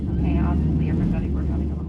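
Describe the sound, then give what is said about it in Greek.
A loud, steady roar of an American Airlines airliner's engines just after takeoff, as fire breaks out in one engine, fills the whole moment, with muffled voices speaking over the continuous rumble. “Φωτιά ξεσπάει στον κινητήρα αεροπλάνου της American Airlines που μόλις έχει απογειωθεί από το Γάιο.”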